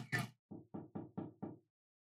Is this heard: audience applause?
no